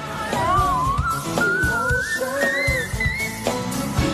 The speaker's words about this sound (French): Cette soprano colorature couvre plus de 5 octaves et sa particularité, c'est qu'elle peut monter très haut. On appelle ça the whistle voice, en français la voix sifflée. Démonstration.